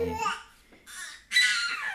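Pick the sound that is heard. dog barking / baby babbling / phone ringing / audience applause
baby babbling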